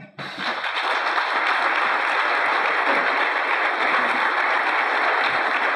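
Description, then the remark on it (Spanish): Applause from a small crowd at a federation assembly, heard in a played video, starts abruptly and carries on at a steady, even level for about five and a half seconds, with no voices over it. “Vemos que sí, es muy poco la gente que lo aplaude, ¿no?”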